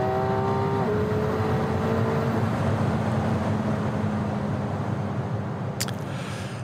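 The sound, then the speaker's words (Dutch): A McLaren sports car engine roars loudly and steadily under hard full-throttle acceleration past 100 on a closed circuit, a dense rumbling drone with humming tones, with a brief sharp click near the end and no talking. “moet ik gewoon nog één keer launch control doen”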